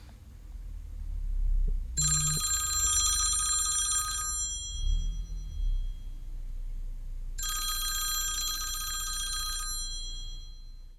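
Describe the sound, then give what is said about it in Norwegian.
A telephone rings twice, each bright, harmonic ring lasting about two seconds with a pause between, over a low background hum; no one speaks. It is the start of a phone call between two school principals, before it is answered. “Så nå skal du få høre den første begeistrede eh, telefonsamtalen mellom to rektorer som er veldig glad og veldig stolte og veldig forventningsfulle til eh, det vi skal gjøre nå.”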